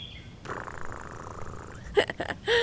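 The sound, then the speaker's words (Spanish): A soft, rumbling purr-like sound runs for over a second, likely a voice imitating a cat's purr, followed by a couple of short, brighter vocal bursts. “¿Ronroneas? Muy bien.”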